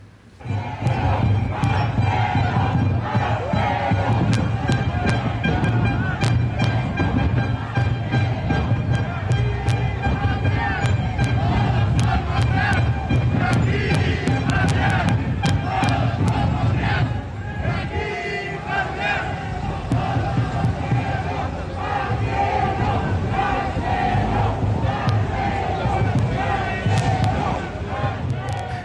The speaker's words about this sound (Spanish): porque, este, pues a ver, antes de que arrancara, afuera había batalla de porras. Batalla de porras.